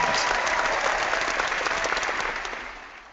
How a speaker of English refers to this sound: Is that what that clap was for? Yeah. our, studio audience here is uh, clapping for any reason.